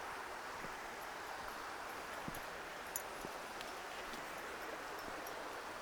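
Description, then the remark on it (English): Faint, scattered metallic clinks of the collar tags of a dog named Euro jangling a few times during a walk in a dense pine forest in the South Esk Valley, Midlothian, over a steady wash of running water, birds and outdoor ambience, with no talking. “The jangly metal sound is my dog Euro, that's his collar.”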